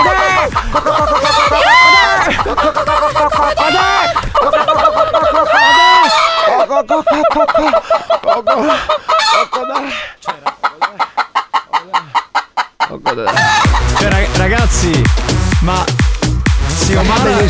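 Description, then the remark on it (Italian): A person imitates a hen with a run of quick, bouncy clucks, then a series of short rhythmic clucking bursts, with other voices chattering and laughing around it. “Tu ce la fai a fare la gallina?”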